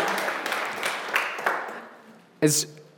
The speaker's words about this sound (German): okay. Um, Applaus nochmal